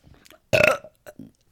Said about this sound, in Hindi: और वो आए अपना उन्होंने पहले डकार मारी